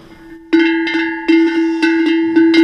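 A sheet-metal cattle bell shaken in irregular bursts, each clank ringing with a bright, metallic tone that lingers between strikes; loud, with no voices.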